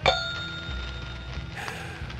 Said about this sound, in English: But if you change your mind, all you have to do is ring this bell.